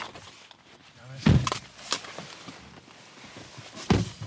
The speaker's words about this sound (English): I'm going to see if anyone's at home. I'm going to go knock on the door. Let's see if the modern Lochiel is around.